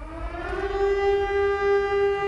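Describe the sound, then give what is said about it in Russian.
A civil defense warning siren, a signal meant to draw the attention of all citizens, drones loudly and steadily, its pitch rising slightly at first before holding a sustained, harmonically rich wail, with no voices present. “А этот сигнал предназначен для привлечения внимания всех без исключения граждан.”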